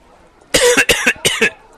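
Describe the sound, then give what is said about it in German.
A loud fit of harsh coughing, several rapid hacks bunched into three quick bursts, with no talking around them. “Weil von diesem ganzen Tofu-Kram, da kriege ich immer Husten.”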